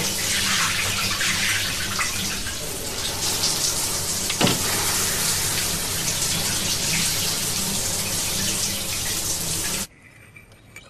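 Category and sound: household object, shower running water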